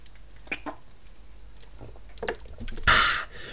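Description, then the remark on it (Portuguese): Someone drinks water, with a few soft wet clicks and swallows followed by one louder, deliberate gulp near the end, and no talking. “Vocês sabem que eu não, eu não, faço barulho, eu naturalmente não faço barulho a beber água, só faço mesmo para vocês perceberem que eu não me calei de repente, ok?”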